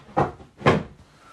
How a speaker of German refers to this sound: Das war übrigens kein Pups, Florian Stuhl hat geknatscht.